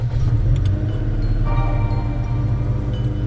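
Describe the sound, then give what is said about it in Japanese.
A car engine rumbles after starting, settling into a steady low idle with a brief rise in revs partway through; no one speaks. The car is being started to set off on a drive using the expressway. “じゃあ、エンジンオン”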